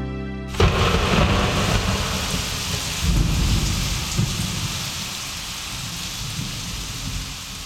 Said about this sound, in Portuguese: Caramba, que chuva! Ela veio tão de repente que eu não tive tempo de me esconder. Sabem de uma coisa? A chuva deixa a floresta ainda mais bonita.